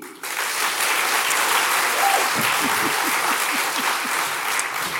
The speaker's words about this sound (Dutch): Hartelijk applaus voor deze drie.